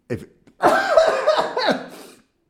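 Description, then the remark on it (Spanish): A man coughs: one short cough, a brief pause, then a longer, rough, throaty fit of coughing that trails off. “Ando muy toselón últimamente, perdón. ya me di cuenta. me emociono y empiezo a toser.”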